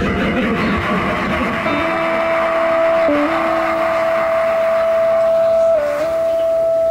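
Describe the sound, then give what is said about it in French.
A loud electric guitar amplifier feedback howl, set off when a guitarist playing turns toward his amp so its sound loops back into the guitar pickup, rings steadily for several seconds, its piercing tone stepping slightly in pitch a few times over a dense, distorted wash of amp noise. “alors qu'il jouait avec sa guitare, il s'est tourné vers son ampli, ce qui a provoqué un énorme larsen.”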